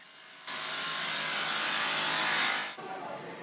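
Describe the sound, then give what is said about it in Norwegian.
A loud, harsh power drill whines steadily for about two seconds before cutting off abruptly, leaving a quieter rumble of construction machinery, cement trucks and excavators, running in the background, in L'Aquila, Italy, a city being rebuilt after an earthquake destroyed it. “Boring, sementbiler gravemaskiner.”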